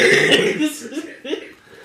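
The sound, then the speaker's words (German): A woman coughs hard a few times in a rough, raspy burst, then the coughing trails off into quieter throaty sounds and faint voices. “so, oh ja, und jetzt hustet sie.”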